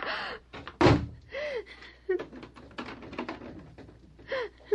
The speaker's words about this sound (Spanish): cierra la puerta. Sí, mamá.